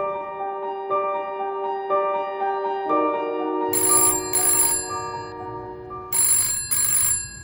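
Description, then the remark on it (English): A telephone rings loudly in two double bursts of bright, jangling bell tones, with a steady electronic melody playing underneath throughout. No one speaks. “Who's on the phone”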